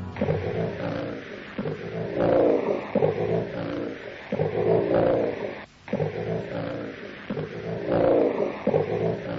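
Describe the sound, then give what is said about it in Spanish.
A deep, guttural creature roar, emitted underwater to frighten its prey, repeats in about four long, rhythmic surges, each swelling and fading with a growling, rasping texture. It stays loud throughout, with no talking. “pero ya no podemos dudar de su existencia, como tampoco del gutural y terrible sonido que es capaz de emitir bajo las aguas para atemorizar a sus presas.”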